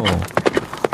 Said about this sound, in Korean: 말 달리는 소리입니다. 오늘 보물소리가. 일부에 나가는 노래 가운데 이 말 달리는 소리가 흘러나오는 노래가 있을 거예요.